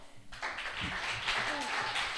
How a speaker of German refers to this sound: Deshalb fünf Minuten Bühne frei jetzt für Mieze Medusa. Applaus.